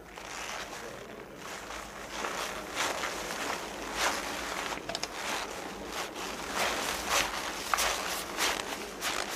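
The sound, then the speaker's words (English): Creaking as a man sits down in a seat and crosses his leg: a run of dry, scratchy creaks and rustles in irregular bursts, fairly steady in loudness, with no voices. “So of course he then goes to cross his leg, which is cre- more creaking.”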